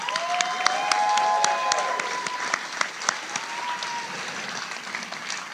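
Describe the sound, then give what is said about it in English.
A crowd at CapCon applauds the panelists after a live show, with dense, steady clapping, joined by a few high whoops and whistles early on; the applause stays fairly loud and then tapers slightly toward the end. “How about a, a round of applause for our panelists?”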